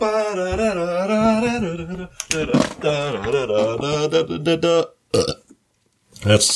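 A long, loud, low-pitched burp rumbles for about two seconds, then breaks into a string of shorter, croaky belches before trailing off into a brief silence and a final short burst.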